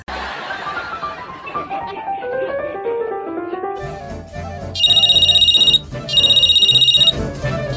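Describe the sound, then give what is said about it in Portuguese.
A mobile phone ringtone sounds in two loud, shrill bursts of rapid trilling beeps, following a busy melodic jingle with a steady beat underneath. “Coxinha, teu celular tá tocando, tá ouvindo não?”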